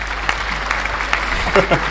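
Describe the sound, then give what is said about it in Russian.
A steady wash of applause from a small group, added in editing, with dense rapid clapping throughout at moderate loudness and a voice briefly audible underneath near the end. “на уже аплодисменты на монтаже, пожалуйста.”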